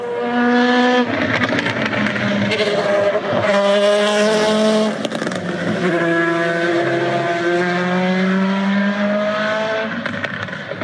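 A loud Dallara LMP2 race car engine roars continuously, its pitch climbing and dropping through several gear changes as it speeds past. No voices.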